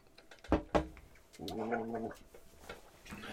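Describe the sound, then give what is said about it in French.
Someone gargles milk with a wet, bubbling rattle, preceded by a couple of sharp clicks or spits, then a sustained gurgle, followed by scattered splashy bubbling. “Gargouillage de lait.”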